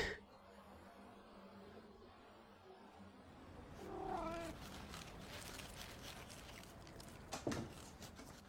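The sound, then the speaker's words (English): A stray cat meows once with a drawn-out, wavering cry, followed by a short sharper meow a few seconds later, set against a steady rustling background with no one speaking. “流浪猫”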